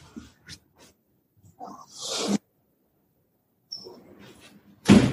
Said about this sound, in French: pardon, j'ouvre à ma chienne.